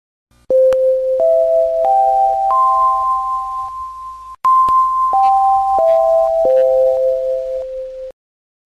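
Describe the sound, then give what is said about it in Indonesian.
A school entrance bell plays a loud electronic chime, four ringing notes climbing upward, a brief pause, then four notes stepping back down, with no one speaking. “Bel tanda masuk telah berbunyi.”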